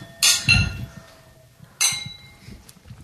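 Glasses clink together twice in a toast, bright ringing taps about a second and a half apart, fairly loud with a lingering tone, over a faint background murmur.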